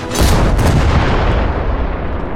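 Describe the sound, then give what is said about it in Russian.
A massed salute volley of 50 cannons firing together for the coronation celebration of Empress Elizabeth booms out in a dense, rumbling roar that stays loud and sustained for a couple of seconds with no voices. “И одновременно залпом стреляли 50 пушек.”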